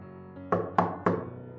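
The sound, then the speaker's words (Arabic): Three sharp knocks on a door, evenly spaced in quick succession, each a solid thud with a short ringing decay, heard over a low sustained background tone. “بعد ثانية سمعت صوت دقات على الباب تلات دقات”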